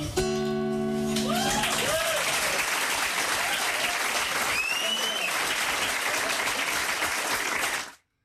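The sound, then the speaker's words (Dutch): An enthusiastic audience at the Betty Asphalt complex gives loud, dense applause for nearly eight seconds, sustained clapping with cheers and whoops rising above it, starting right after a brief tonal note and cutting off abruptly at the end. “Ja, wat een enthousiast publiek, hè?”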